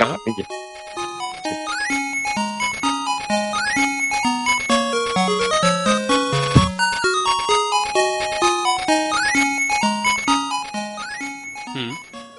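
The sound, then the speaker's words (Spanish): Bright 8-bit chiptune Master System game music for the singing forest level, with a bouncy square-wave melody over a steady stepping bassline, played loud and continuous with no voices. “Eh, sobre todo, eh, te pediría si puedes poner, por ejemplo, la, la, la que, el tema del, tema del bosque.”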